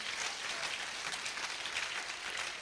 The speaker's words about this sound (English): Clap your hands, make yourself useful for Jesus.